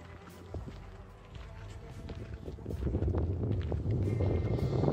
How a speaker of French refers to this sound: Bon, là, il y a du vent par contre.